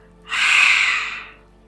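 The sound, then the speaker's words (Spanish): A single deep, forceful exhalation rushes out for about a second, breathy and airy, starting abruptly and tapering off softly, with no talking; a deep-exhalation breathing exercise. “con que vayas haciendo esta respiración de exhalación profunda,”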